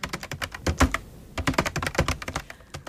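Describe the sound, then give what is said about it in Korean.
Rapid clicking of keys on a computer keyboard, fairly loud, in quick irregular bursts with a brief pause partway through. No voices. “우리 둘 사이에 오고 가는 건 오로지 모니터 속 글자들 뿐이었지만 뜨거운 두근거림으로 서로에게 빠져들었죠.”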